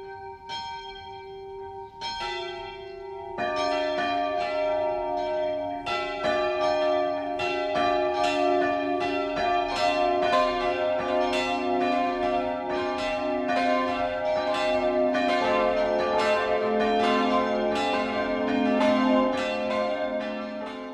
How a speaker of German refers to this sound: Es ist 12 Uhr. Das Mittagsläuten kommt heute aus Eichelsee in Unterfranken.